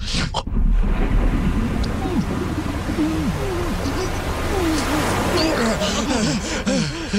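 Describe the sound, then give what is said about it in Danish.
Muffled, submerged water sounds as people go under the water: a dense, steady low rumble fills the whole stretch, with wavering, warbling tones rising and falling beneath the surface, loud throughout. “Og så lige her skal du holde vejret, fordi her kommer vi under vandet.”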